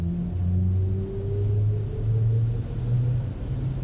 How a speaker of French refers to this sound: ce qui est d'assez intéressant en mode sport. On vient de le découvrir. C'est le bruit quand on dépasse. C'est assez amusant. Regardez ce whoosh.